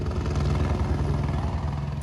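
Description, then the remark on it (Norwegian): A border police helicopter circles over a queue of newly arrived migrants, droning steadily overhead, its rotor producing a continuous low, rhythmic thumping that stays loud and even throughout, with no voices present. “Over hodet på køen av nyankomne kretser grensepolitiets helikopter.”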